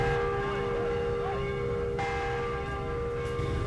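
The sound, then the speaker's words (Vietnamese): A church bell at Giảng Võ parish church rings out loudly and steadily to announce Mass times, its sustained tones overlapping in a continuous wash of ringing with no voices present. “Thưa quý vị, tiếng chuông nhà thờ là âm thanh của sự trong trẻo, thanh bình.”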